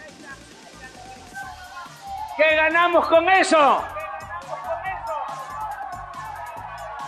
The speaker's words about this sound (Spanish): También le tocó escuchar abucheos al gobernador Adán Augusto López y al presidente municipal Roberto Villalpando. Esto es parte de lo que se vivió, de lo que sucedió ayer. Muy cerca Miren, ahí está, ahí están los gritos.